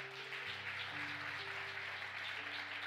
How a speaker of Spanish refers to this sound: Dele un aplauso fuerte.